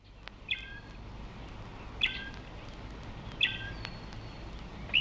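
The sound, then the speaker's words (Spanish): A voice imitates a small bird, whistling short high chirps in a few separated bursts with pauses between them, clear over a low background hum. “Eh, imítale aquí un pajarito al señor.”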